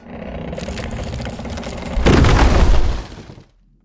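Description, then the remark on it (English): A heavy, grinding rumble of stone scraping against stone, swelling into a louder, rougher crunch for about a second before cutting off abruptly into silence. No voices. “A sound, like the grinding of millstones, or perhaps the opening of a crypt.”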